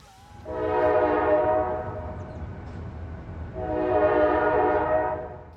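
A train on the New Jersey rail line at Red Bank rumbles steadily past a few feet away, with two long, loud blasts of its horn separated by a short pause. No one speaks.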